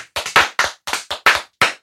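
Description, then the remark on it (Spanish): A short round of applause made of roughly eight sharp, loud hand claps in an uneven rhythm, like one or two people clapping, with no talking over it, welcoming a guest introduced as the king of cumbia in Monterrey. “Venga, un aplauso. Un aplauso.”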